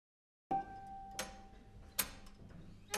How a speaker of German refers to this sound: Die Wanduhr schnurrte dazwischen lauter und lauter, aber sie konnte nicht schlagen.